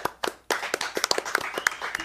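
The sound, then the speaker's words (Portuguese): A few people clap at the end of a recording, a quick uneven patter of sharp hand claps over about two seconds, with no one speaking. “oh, a galera nunca aplaude no final.”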